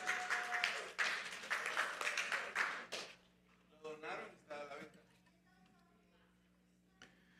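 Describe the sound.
A burst of loud clapping from a group runs for about three seconds, then stops abruptly, followed by quieter speech from a voice or two.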